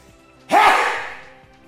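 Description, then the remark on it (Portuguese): A single loud sneeze bursts out suddenly, a sharp explosive blast with a breathy tail that fades over about a second, with no talking around it. “Saúde, amém. Perto de mim não tem ninguém.”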